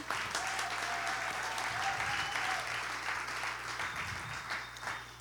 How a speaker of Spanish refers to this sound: Denme un aplauso fuerte a eso.